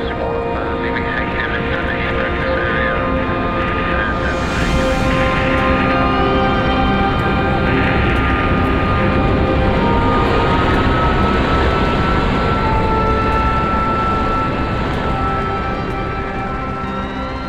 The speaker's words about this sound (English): Initiating the launch protocol. Right, let's get this thing in the air.